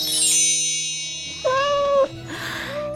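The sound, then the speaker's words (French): A cat named Billy gives a single clear, drawn-out meow, following a bright chime-like ring that fades out, with a softer trailing note at the end and no talking. “Et comme par enchantement, son chat Billy apparut.”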